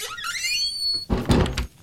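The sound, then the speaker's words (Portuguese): A door creaks with a rising, squeaky whine, then is slammed shut in a woman's face with a single loud, booming thud. No one speaks. “eu vou pegar a porta, olhar pra mulher e fechar a porta na cara dela.”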